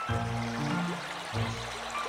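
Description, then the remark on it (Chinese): A steady, loud wash of rushing river floodwater fills the whole moment, with a low droning hum layered underneath that drops out briefly midway before returning. “吃着吃着，突然出现了一大片的河水淹过来了耶！”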